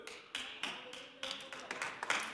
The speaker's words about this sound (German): Hey, warum klatscht ihr? Es geht kein einziges Mal um den Teufel.